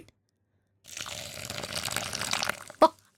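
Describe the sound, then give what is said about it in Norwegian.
Half a deciliter of hot water pours steadily into a bowl with instant coffee for nearly two seconds with a splashing hiss, ending with a single sharp clunk. No one speaks. “så det er altså en halv desiliter varmt, vann som du har oppi der.”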